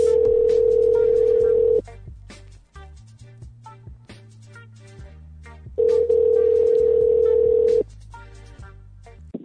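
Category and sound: signal or alarm, telephone dialing and ringing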